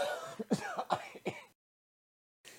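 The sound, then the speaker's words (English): A person clears their throat with a few short, raspy bursts, followed by a brief silence and the start of another sound. “You want to get a cough drop?”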